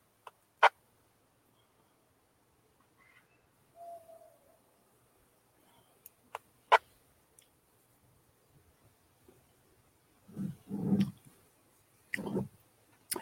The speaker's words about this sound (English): Be advised, we have a barred owl that's uh, saying hello out here. Loud and proud, we hear him all the way down here. That actually may not be a barred owl. Actually, that's uh, he's not doing the usual "Who cooks for you."